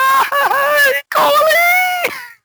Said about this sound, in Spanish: ¿Quién es el que está llorando?